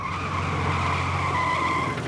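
A car brakes hard and turns sharply left off a path into a forest, with a sustained, high-pitched tire screech over a low engine rumble, loud and steady for about two seconds before easing off at the end.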